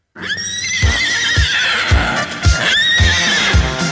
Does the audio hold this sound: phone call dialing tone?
no